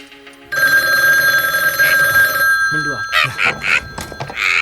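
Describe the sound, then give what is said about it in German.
A telephone bell rings loudly and steadily, a sustained metallic trill that starts abruptly and continues throughout, with a few brief clunks and voice-like sounds mixed in toward the end, in a headquarters at a scrapyard. “Einige Tage später saßen die drei Detektive in ihrer Zentrale auf dem Schrottplatz, als das Telefon klingelte.”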